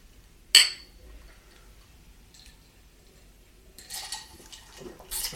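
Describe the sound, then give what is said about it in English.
A single bright clink of whiskey glasses in a toast, ringing briefly before fading into quiet, followed later by soft clattering and handling noises of glassware being set down. “But first, we got a little whiskey left. Yeah, we do. Cheers.”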